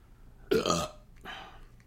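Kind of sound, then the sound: human body sound, burp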